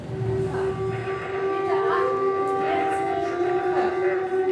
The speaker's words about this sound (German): Immer wenn diese Sirenen ertönten, suchten die Bewohner einen der über 100 Eingänge auf, um Zuflucht vor den Luftangriffen der Phalangisten zu finden.